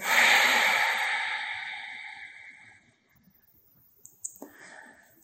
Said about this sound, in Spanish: Inhala profundo. Y sácala nasalmente con fuerza pero suave. Agarro la respiración inhalando y exhalando.